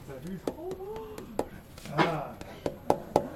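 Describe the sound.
A palm taps a wooden desk, played like a musical instrument, in a loose, irregular series of about nine short, sharp knocks, the last few loudest, with soft voice sounds and a brief breathy noise between them.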